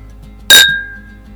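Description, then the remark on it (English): A single bright clink of beer glasses touching in a toast, with a sharp strike and a clear ringing tone that lingers and fades, fairly loud against a quiet background. “Cheers to finding beer everywhere.”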